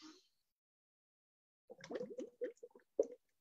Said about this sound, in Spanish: Ahí, hasta que se termine el aire. La idea es hacer burbujas con, eh, con la bombillita de agua.